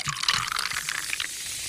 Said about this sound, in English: that sounds, sounds that sounds like a Coke or a seltzer or something. yeah, that's a pretty fi- I, that's a pretty fizzy uh, beer you got.